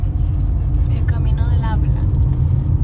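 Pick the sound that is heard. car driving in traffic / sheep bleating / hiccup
car driving in traffic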